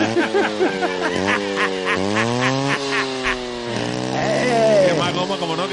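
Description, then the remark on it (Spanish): A small motorcycle engine revs at a circuit as the rider burns some rubber, with a thin, buzzy whine that climbs in pitch, drops, and climbs again several times in a row, like quick gear shifts, staying fairly loud throughout. “La moto gasta poco por lo menos”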